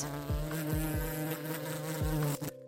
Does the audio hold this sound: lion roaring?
no